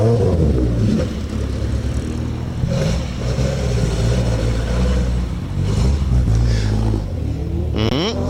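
A rally car engine roars loudly, revving hard with rising and falling pitch as it shifts through gears and sweeps past, continuous throughout with no talking.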